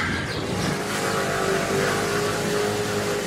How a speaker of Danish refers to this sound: Jeg sidder altså bag på Michaels scooter her, øh, på vej gennem nogle meget snævre gader